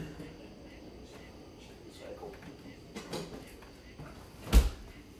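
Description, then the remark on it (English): Recycling being gathered up to be taken out: soft rustles and scattered knocks of handled items, with a sharper clattering bang near the end, and faint voices underneath. “I'm about to take out the recycling as you can hear.”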